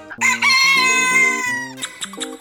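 A loud, drawn-out rooster crow rings out over a short burst of bouncy music, followed by a few quick musical stabs: a brief segment jingle for 'O Pio da Jeripoca'.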